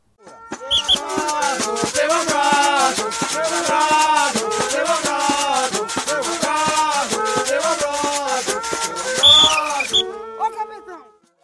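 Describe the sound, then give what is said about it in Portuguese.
A recording of Brazilian Cavalo Marinho folk music: lively melodic singing and instruments over a steady, rapid percussive beat. It plays loudly and continuously for about ten seconds, then cuts off abruptly. “Dependendo de qual for a música, um personagem mascarado entra para sambar se apresentar e contar a sua história.”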